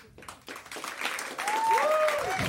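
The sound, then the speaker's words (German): Audience applause for a submitted question builds from scattered claps into a steady, dense wash of clapping, with a few whoops and whistles rising over it and crowd voices mixed in. “euer Applaus für Jennys Frage, welches war eure peinlichste Studie-VZ-Gruppe?”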